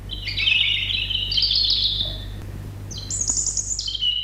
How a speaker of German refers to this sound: Und wer jetzt nicht genau weiß, wie sich so ein Rotkehlchen und eine Blaumeise anhören, hier kommt zunächst mal das Rotkehlchen.